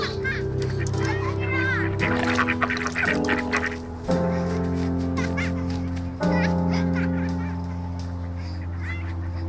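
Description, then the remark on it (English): A busy flock of ducks on a park pond quacks and squabbles almost nonstop as they fight over bread thrown in by children, calls overlapping, over a steady droning tone that hums beneath the whole stretch. “all the kids are standing around the pond and they're, they're throwing bread in, and the ducks are fighting to get a meal.”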